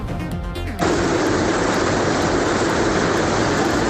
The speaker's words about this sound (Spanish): Escuchamos el sonido de Larga su paso por Pamplona, un caudal que va crecido por las precipitaciones que no cesan en nuestra comunidad.